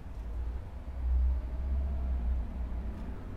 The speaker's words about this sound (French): Il y a des voitures qui passent. J'espère que ça s'entendra pas trop sur le bout des pavés.